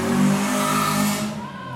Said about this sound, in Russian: Ого, лихие. Л- лихие мотоциклисты, да.